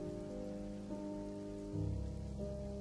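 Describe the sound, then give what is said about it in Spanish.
Steady, dense rain from a storm hisses continuously, layered over low sustained droning tones that swell slightly partway through. There are no voices, and the downpour stays constant throughout. “Lo último que recordamos es que era de noche, la tormenta estaba en su clímax el edificio crujía por el viento y las luces espasmódicas en las ventanas golpeaban los cristales y nos permitían ver en las penumbras.”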